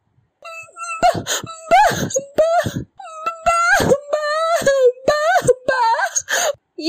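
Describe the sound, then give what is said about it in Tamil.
A woman's voice, performed by a single narrator as the cry of Amudhan's mother in a Tamil story, wails in anguish: long, loud, quavering cries that rise and fall, broken by short sobbing breaths, unaccompanied. “அமுதன் அன்னையின் ஓலம் அவர்களை தொடர்ந்து வந்தது”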